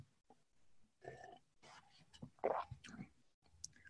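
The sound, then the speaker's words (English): Quiet mouth sounds of someone sipping a glass of water with a little kombucha in it and swallowing, a few short slurps and gulps spread over a few seconds with soft breathy noise between them. “So I have a glass of water has a little kombucha in it, right? So I'm going to take a sip.”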